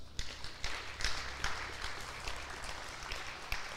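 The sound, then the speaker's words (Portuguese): A crowd applauds the Lord, many hands clapping in a dense, steady patter with a few sharper claps standing out, sustained throughout without any voices. “Aplaudo o Senhor por isso.”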